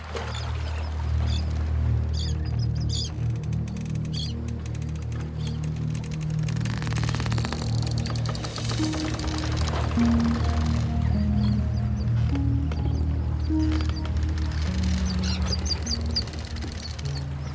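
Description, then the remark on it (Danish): Ambience aboard a rocking Viking ship: a steady low rumble with drawn-out creaks and groans of timber, scattered clicks and faint chirps above, continuous and fairly loud, with no one speaking. “Og måske også mærke, at det gynger lidt under dig. Vi er ombord på et skib.”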